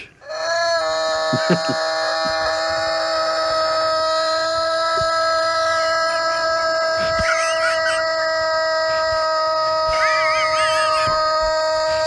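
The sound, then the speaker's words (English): A civil defense siren sounds one loud, steady, droning tone with rich harmonics, holding at the same pitch for about twelve seconds. Faint warbling chirps flicker in near the end. “civil defense siren.”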